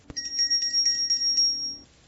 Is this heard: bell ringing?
yes